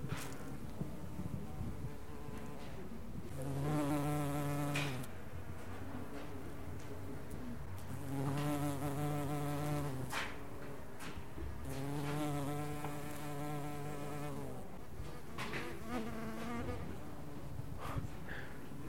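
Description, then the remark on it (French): Bumblebees buzz among flowers in a courtyard garden, their low droning hum swelling and fading in repeated passes as they fly by, with a soft outdoor background and no talking. “Je crois qu'on doit entendre les, dans les fleurs les, les bourdons.”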